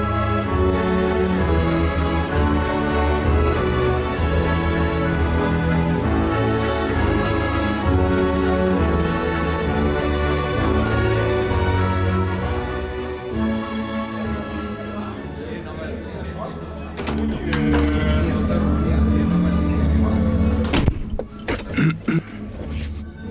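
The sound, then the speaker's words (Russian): Georgy Sviridov's orchestral waltz from his suite for the film The Snowstorm plays steadily and fairly loud, with lush sustained strings and rich layered harmonies, swelling slightly before a few sharp accented hits near the end. “И мне почему-то больше всего нравился вальс Георгия Свиридова, написанный как кинофильм «Метель».”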